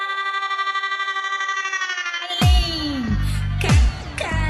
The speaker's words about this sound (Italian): Questa è musica australiana.